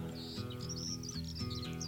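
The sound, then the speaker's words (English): A skylark's fast, continuous warbling trills high over sustained, steady musical chords, the bird song bright and busy without pause while the low instrumental tones hold underneath. “Hear the lark and hearken to the barking of the dog fox gone to ground.”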